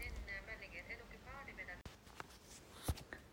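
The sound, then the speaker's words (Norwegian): An out-of-hours emergency medical service (legevakt) phone rings with a warbling electronic tone for about two seconds, then it stops abruptly and a quiet voice comes on, as if the call has been answered. It is half past eight in the evening in a commuter apartment in Lakselv, Porsanger municipality. “Legevaktstelefonen ringer.”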